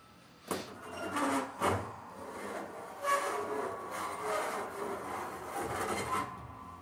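A heavy door creaks and grinds open under pressure, a sustained rough rasping with a few sharper scrapes and bursts, fairly loud throughout and without any voices; a sound effect made by two animators at microphones for an ice castle door in a told story.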